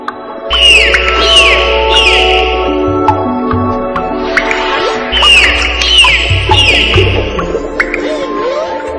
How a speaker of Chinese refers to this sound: 你现在听到的这个声音是海豚发出的海豚音。海豚是非常讨人喜欢的，不过它们是一种长度不足五米的小齿鲸，是鲸类哦。